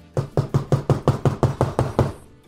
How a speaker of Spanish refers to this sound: Ya estaba en mi cuarto, yo dormí porque era este, en un hotel y ya me fui a mi cuarto. Y de repente oigo que tocan la puerta.